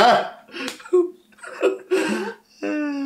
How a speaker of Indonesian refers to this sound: Berarti tadi Mbak ambil GoFood itu suara grok grok grok grok. Kagak ini suara galon